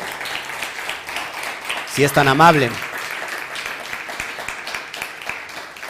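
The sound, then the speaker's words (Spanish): A crowd applauds steadily, a dense patter of many hands clapping for several seconds for the community in the United States, with a brief spoken phrase rising over the clapping partway through. “Un fuerte aplauso y abrazos también a la comunidad de Estados Unidos, por favor.”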